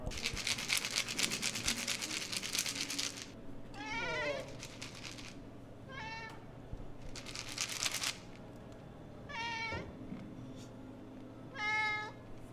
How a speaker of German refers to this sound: Das Miauen, das ihr eben hören konntet, war der Kater Amon. Er ist sehr gesprächig und immer für einen Plausch bereit.